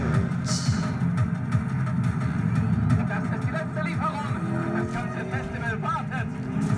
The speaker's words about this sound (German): Auf den Wagen sparen wir. Okay? Also wir müssen uns natürlich ab und zu mal neu kaufen, aber auf den sparen wir. Das ist der AM äh, Mercedes AMG One.